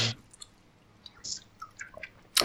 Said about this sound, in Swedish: Jag käkar lite också. Det kanske hörs.